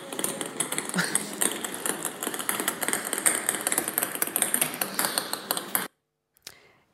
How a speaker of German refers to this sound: Ja, also was hier passiert ist sozusagen, dass die Pendlerinnen und Ankommenden und Abfahrenden an diesem Bahnhof ähm, sich plötzlich ähm, durch ja, Tischtennisballartige Geräusche bewegt haben und, und das eben dort tatsächlich so war